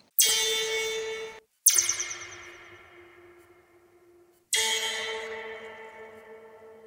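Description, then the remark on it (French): Three loud strikes on a 5-metre-long metal spring stretched between two ends, recorded with a contact microphone fixed on the spring and processed with reverb, each ringing out with a shimmering, metallic, heavily reverberant tail that slowly fades; no voices, just the resonant twangs. “un ressort long de 5 mètres, hein, tendu entre ces deux extrémités, sur lequel on frappe, ou on frotte, avec des objets divers et variés”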